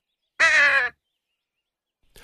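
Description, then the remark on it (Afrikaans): A single loud, harsh crow caw rings out, lasting about half a second, followed by silence and the faint start of another sound at the very end. “Kokkie sit weer hoog in die boom en wag vir Eben wat gaan kos soek het vir hulle, toe die nare kraai skielik sy verskyning maak.”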